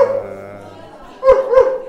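A dog, the speaker's own and happy at the moment, gives a drawn-out whine, then lets out two sharp, loud barks in quick succession.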